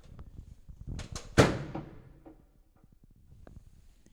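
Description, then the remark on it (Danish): A couple of quick clunks, then a heavy car door slams shut in an empty parking basement, its boom ringing out in a long echoing decay, followed by faint scattered clicks. “Jeg synes, vi skal, vi skal høre, jeg ved, inde i Fields, der er en del af min kulturkanon, det er, at man skal høre en bil, der smække, når der er tomt i den ja. kælder.”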